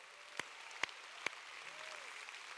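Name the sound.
audience applause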